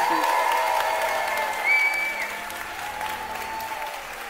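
An audience applauds the speaker's wife, a steady dense wash of clapping that stays strong throughout, with a few whistles or cheers rising briefly above it.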